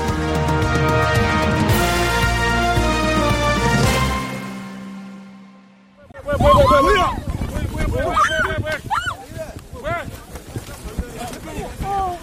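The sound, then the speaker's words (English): A few seconds of steady broadcast-style music cut off, then a chaotic crowd erupts: many overlapping voices screaming and shouting frantically, loud and continuous until the end, after Democratic Party chair Lee Jae-myung was attacked during a visit to the southeastern port city of Busan. “What you're hearing now are screams and shouts that erupted after main opposition Democratic Party chair Lee Jae-myung was attacked on Tuesday while on a visit to the southeastern port city of Busan.”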